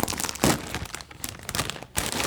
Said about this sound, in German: Ja, beste, neben den Mikrofon Chips wieder aufmachen.